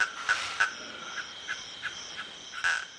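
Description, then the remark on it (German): A night chorus of frogs calling in quick, regular pulses over a steady high insect drone, with no voices, recorded at Governors Camp in the Masai Mara reserve, Kenya. “Insekten, Tüpfelhyänen, Uhus, afrikanische Waldkäuze, Elefanten, das Nagetier Baumschliefer, in der Ferne brüllende Löwen, verschiedene Arten von Fröschen und Kröten.”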